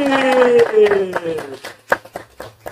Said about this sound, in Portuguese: Vamos aplaudir!